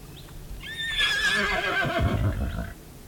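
animal, horse whinnying

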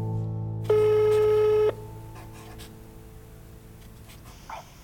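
signal or alarm, telephone ringing tone

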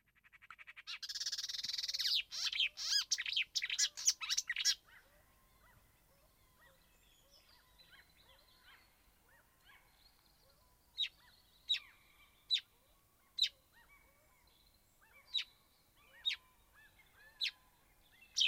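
bird, marsh warbler song

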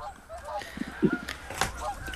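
bird, goose honking

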